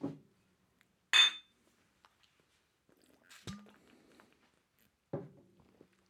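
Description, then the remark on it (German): Glasses clink together in one bright, ringing chime during a toast, followed by a few softer knocks and tabletop clatter, with no one talking. “Ja, äh, Prost auf Matthias.”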